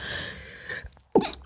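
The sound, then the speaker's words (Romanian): A single sharp sneeze bursts out after a brief breathy intake and a moment of silence, loud against a faint background hiss. “Scuze, n-am putut să mă abțin. Sănătate.”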